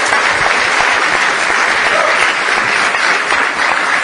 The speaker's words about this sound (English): But first of all, I want to give you a, a, round of applause and thank, thank you.